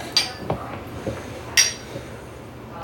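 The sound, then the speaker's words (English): Glasses of Duke's Founders Reserve clink together in a toast, three bright, ringing taps spaced apart, with faint soft knocks in between and no talking. “Cheers. Cheers. The Duke.”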